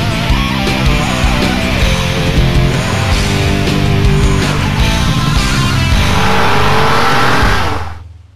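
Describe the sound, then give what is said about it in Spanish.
A race car engine in the video game The Need for Speed (Road and Track, EA Canada, Electronic Arts, 1995) roars loud, revving up with rising pitch toward the end before cutting off abruptly, with no one speaking. “El juego que, que, yo creo que antes echarte un arcade de coches era jugar un Need for Speed, ¿no?”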